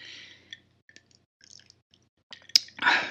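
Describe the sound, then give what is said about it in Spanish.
Quiet wet mouth sounds and small clicks as someone sips whisky, followed by a sharp swallow and a breathy exhale at the end. No one speaks. “Primero que nada hay que un traguito de, whisky para aflojar el cuerpo.”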